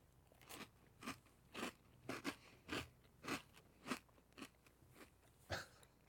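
Close, crisp crunching of someone chewing crunchy cereal, about a dozen sharp bites in a steady, slightly uneven rhythm with nobody speaking.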